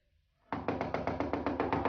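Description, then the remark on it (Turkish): Loud, rapid pounding on a door at night to wake a sleeper starts abruptly and keeps going in a steady, insistent series of heavy knocks, with no voices. “Kıracaksın kapıyı.”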